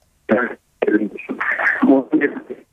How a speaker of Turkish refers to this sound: telefon bağlantısında seste bir problem var. Ee, şu an itibariyle seni çok iyi duyamıyoruz.